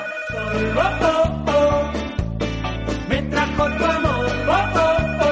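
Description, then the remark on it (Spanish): A telephone rings with an incoming listener call to a phone-in programme, its bright tone layered over a steady, rhythmic musical backing with a pulsing bass line, loud and continuous throughout, with no one speaking. “Venga, tenemos ya llamadita, parece que tenemos llamadita.”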